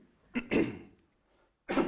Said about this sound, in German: Ab und zu muss ich husten.